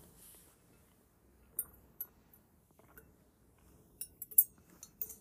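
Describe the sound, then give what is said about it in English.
Someone drinks water from a glass: a handful of sharp, bright clinks and taps scattered unevenly over a faint low rumble, with no talking. “I just did a break again to drink water.”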